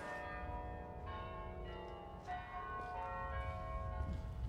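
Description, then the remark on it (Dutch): The church bells of the Martini Tower ring continuously, heard while walking via the Turfstraat back toward the Martini Kerkhof, their overlapping metallic tones sustaining and layering into a rich, resonant peal, with no voices present. “En dat is de Martini Toren die we horen.”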